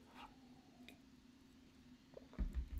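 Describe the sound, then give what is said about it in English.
A water bottle is opened and handled: faint clicks and a soft hum at first, then a cluster of louder crinkling, squishing bursts near the end. “As she opens her uh, of water.”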